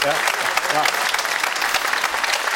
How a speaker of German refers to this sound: Das, dass, dass Sie natürlich in München hier äh, Applaus dafür kriegen für elf Meistertitel.